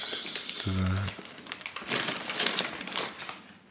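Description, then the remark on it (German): Crinkly rustling of a plastic bag as something is taken out of it, a steady stream of crackles and crumples with scattered sharper pops. “Ich hole gerade was aus einer Tüte raus.”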